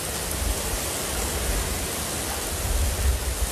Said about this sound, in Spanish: Como les indico, pues por, por momentos las rachas de viento son, son intensas, la lluvia no ha parado desde, durante toda gran parte desde la noche del, del miércoles y toda la madrugada de este jueves.